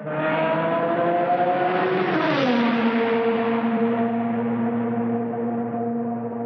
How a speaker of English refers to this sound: So, are you ready to start your engines?